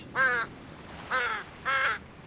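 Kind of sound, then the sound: bird, raven cawing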